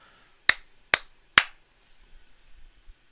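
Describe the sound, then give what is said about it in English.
Three sharp hand claps in quick, even succession, each a crisp, bright crack that fades fast, made as a sync marker to mark where recorded talk begins, followed by quiet low rustling and no talking. “Yep, I'm gonna clap again, so I know where we start talking for real.”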